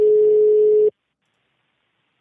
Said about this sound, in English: Oh. That sounds like the ringtone or something. Yeah. Why is there a fucking European ringtone? Maybe he's in another country. Yeah. That's where it goes when we go over into the EU.